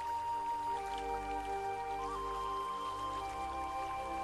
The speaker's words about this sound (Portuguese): sendo levada pela água da cachoeira.